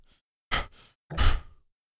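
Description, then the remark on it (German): Heavy, creepy breathing into a microphone: two loud, rough breaths, a short one and then a longer, rumbling one, with no talking. A person is imitating a stalker's breathing. “so wie so ein Stalker so unheimlich äh, ins Mikrofon runzt. so. Ja, irgendwie sowas. was, keine Ahnung. So ich, laut laut atmend.”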